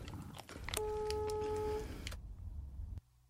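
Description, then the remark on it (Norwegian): A telephone call being placed, the intro of a show: a steady electronic telephone tone holds for about a second amid a rattle of clicks and mechanical noise, then the clatter continues briefly before cutting off. No one speaks. “Introen er jo en Ivar som ringer.”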